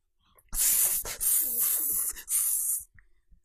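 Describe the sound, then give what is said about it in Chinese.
A voice imitates a snake's hiss: a loud, breathy, high sibilant sound held for about two seconds, broken into three long bursts by brief dips. “接着发出蛇的嘶嘶声和狮子的吼叫声。”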